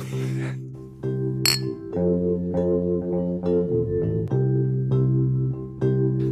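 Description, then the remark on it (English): A single bright, sharp clink of glasses in a toast rings out early on, over a steady bed of sustained, droning musical tones that carry through the whole stretch. “Yeah, Cheers to Victor.”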